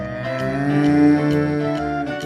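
A single long, loud cow moo, held steady for a couple of seconds with a rich, droning tone, on its own without any talking.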